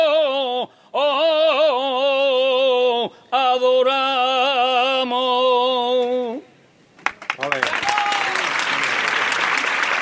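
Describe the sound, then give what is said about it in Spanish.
A sustained, wavering solo saeta is sung in long held notes in front of the sanctuary of the Gitanos, then stops; after a short silence, dense applause breaks out and continues steadily to the end. “Aplauso al término de esta saeta”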